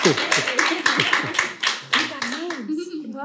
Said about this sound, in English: All right, amazing. A round of applause for them, I guess.